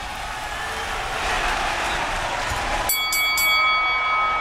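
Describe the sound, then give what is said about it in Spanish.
A boxing ring bell clangs three times in quick succession, its bright metallic tone ringing on afterward, following a few seconds of steady crowd noise. It starts round 3 of a boxing bout featuring Giovanni Santillán of San Diego, California, broadcast on El Heraldo Radio. “Sonó la campana y ahí están en el centro del cuadrilátero Giovanni Santillán de San Diego, California,”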